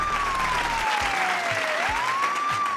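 Steady, dense applause sound effect from a crowd fills the whole stretch, with a police siren wailing tone sliding down and back up over it and a few low thumps underneath.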